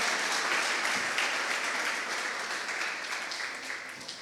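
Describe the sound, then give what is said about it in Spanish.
An audience breaks into loud, sustained applause for the King, God, a dense wash of many hands clapping at once that holds steady for several seconds and only eases slightly toward the end. “Aplauda fuerte al Rey, gloria a Dios.”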